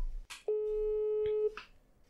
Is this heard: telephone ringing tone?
yes